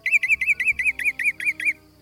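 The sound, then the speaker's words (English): A mimicking bird gives a hawk-like call: a rapid, even series of about nine sharp, high-pitched notes, clear, with no voices. “So I'll bet my bottom dollar that you're dealing with a mimic.”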